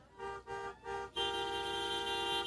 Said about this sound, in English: What's with the honking of the horns? Honk, honk.